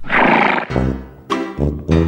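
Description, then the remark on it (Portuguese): A mare being ridden at a gallop neighs loudly, a long shrill whinny breaking into several shorter, throaty pulses over about two seconds, with no other sounds around it. “Fransquim, desça dessa égua agora!”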